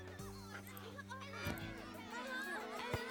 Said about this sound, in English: Hey, look, kids playing soccer.